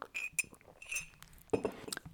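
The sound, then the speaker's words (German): A cup of Earl Grey tea being handled and sipped from: several light, ringing clinks of ceramic or glass, then a brief soft burst like a sip, with no one talking. “Moment, ich muss mal schon meinem Tee nippen.”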